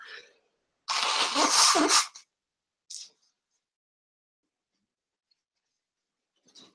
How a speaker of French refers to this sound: Alors, je vais me moucher, je suis désolé. Bah oui, voilà, on n'est pas parfait.